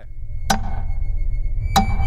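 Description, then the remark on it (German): Two sharp knocks on rubble by a rescue team listening for calls for help from survivors, spaced over a second apart, each a brief bright crack with a short ringing tail, over a steady low rumble of background noise. “Nochmal klopfen, Ruhe!”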